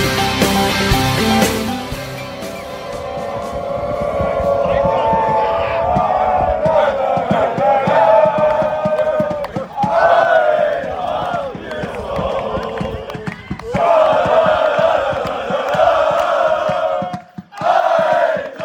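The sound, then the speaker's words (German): A loud crowd of fans of Eintracht's second men's team chants and cheers, celebrating their Kreispokal (district cup) win on 3 July, many voices shouting together in a rough rhythmic chorus, with a brief burst of noisy clapping or clatter at the start. “So hörte sich das an, als am 3. Juli die zweite Männermannschaft der Eintracht mit ihren Fans den Triumph im Kreispokal feierte.”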